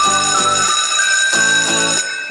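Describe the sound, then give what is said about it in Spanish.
A school bell rings loudly, sounding in two pairs of short, pulsing bursts over a steady bright tone, marking the start of a new class at the Academia de Emprendedores, with no voices present. “Sonó el timbre. Eso significa que en la Academia de Emprendedores comienza una nueva clase del curso Estudio de Mercado”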